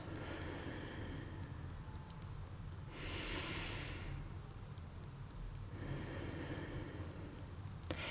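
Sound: slow breathing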